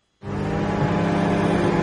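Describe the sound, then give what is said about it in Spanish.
A car engine kicks in abruptly after a brief silence and holds a loud, steady roar with a rumbling low hum and no voices over it. “La energía que necesita tu coche para llevarte a ver a tu madre.”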